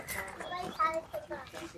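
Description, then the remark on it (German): Children's voices call out and chatter on a summer day, a lively jumble of young shouts carrying through open air, with a brief high cry standing out midway. “Grillen, Auf zirpen die Kinder schreien.”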